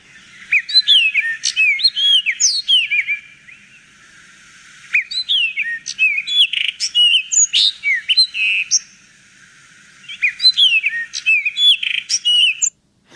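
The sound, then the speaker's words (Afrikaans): Cape rockjumper (Kaapse klipluister) song: three bursts of rapid, high whistled notes and chirps, loud, separated by brief pauses, with no talking. “Nou ja, die Cape Rock Jumper, ter sprake hier is die Kaapse klipluister en hy klink so.”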